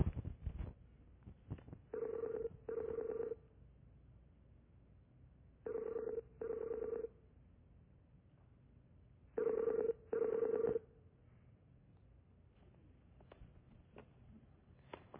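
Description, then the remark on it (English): A Skype video call ringing tone sounds in three paired bursts, each pair two short electronic rings close together, repeating about every four seconds, clear and fairly loud, as a call is placed one morning. “I have learned how to Skype, and uh, we're going to give it a try here this morning”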